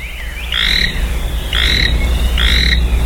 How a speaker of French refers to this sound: Exactement, ouais, c'est ça. Alors, c'est des, crapauds. C'est des crapauds, ça.